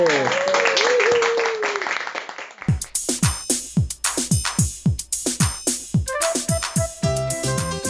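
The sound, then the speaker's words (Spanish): A short burst of dense crowd applause for a nun after an interview with Dominican sisters of the Immaculate Conception, with some tonal sweeps through it, cut off after a few seconds by a punchy music jingle with heavy, rhythmic drum hits. “Así es, un aplauso para la madre.”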